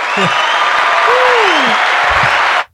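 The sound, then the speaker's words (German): Loud, steady applause sound effect played from a soundboard, a dense wash of crowd clapping that fills the whole stretch and cuts off abruptly at the end, with a brief vocal murmur underneath. “Drück mal auf alle deine Knöpfe, vielleicht kommt noch irgendwo ein Applaus.”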